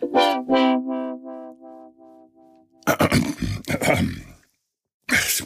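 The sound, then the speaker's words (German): A long, drawn-out groaning voice slowly falls in pitch, then gives way to loud, harsh, raspy, indignant throat clearing from a frog in the throat in rough bursts, a brief pause, and one more gravelly clearing. “Ich räuspern nicht. Ich, ich, habe, ich habe einen, vor, vor Empörung einen Frosch im Hals.”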